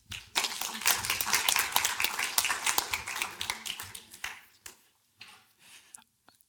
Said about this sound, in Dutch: Geef hem een warm applaus.